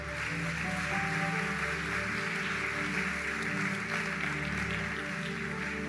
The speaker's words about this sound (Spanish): ¡Wow! Alguien que pueda darle un fuerte aplauso a Dios.